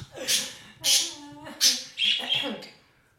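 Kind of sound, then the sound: bird, pet bird squawking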